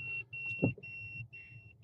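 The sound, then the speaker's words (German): A car's door-open warning chime, sounding because a door was left open, beeps steadily in a repeating pattern, a high thin tone pulsing about twice a second over a low idling engine rumble, with a brief thump midway. “Ja, und was piepst da?”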